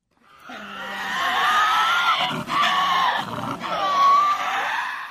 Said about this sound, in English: It's a sound that hasn't been heard in the wild on Australia's mainland for centuries the screech of a Tasmanian devil.